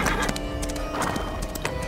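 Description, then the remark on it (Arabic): Horse hooves clip-clop in a steady rhythm while a horse whinnies, its drawn-out neigh carrying over the hoofbeats; no one speaks. The horse is being unhitched from a carriage. “اخذ السندباد الخنجر من يد العجوز وهجم على العربه مرغما اولا فك الحصان عن العرب”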